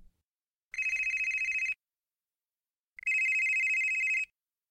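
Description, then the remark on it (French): A telephone rings twice, each trill lasting about a second with a pause between, bright, with no voices. “On m'a contacté par téléphone.”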